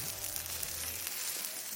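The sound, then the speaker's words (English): Italian sausages sizzle steadily on a well-loved grill in a backyard near Fresno, a dense crackling hiss that stays even throughout, with a faint low hum underneath and no voices. “An old swing set over there, some flower beds, a little pool with a diving rock, and this well loved grill with some Italian sausages on it sizzling.”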